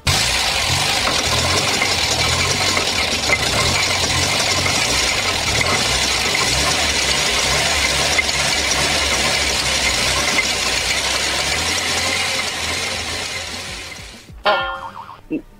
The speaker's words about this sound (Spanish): Ah, entonces el sonido que pusimos fue de un carro nuevo. Deje cambio el sonido. Este es el carro entonces.